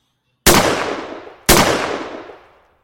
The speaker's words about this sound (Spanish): pero primero creo que hay un escopetazo muy importante que decir y casi casi es una ronda de siete disparos al aire en agradecimiento.